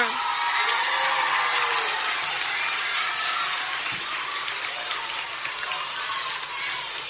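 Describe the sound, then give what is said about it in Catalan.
A large audience applauds the music teachers steadily, a dense wash of many hands clapping that stays loud and continuous for several seconds before easing slightly toward the end. “Bé, jo crec que es mereixen un fort aplaudiment als professors de música.”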